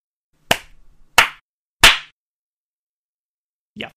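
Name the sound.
single hand clap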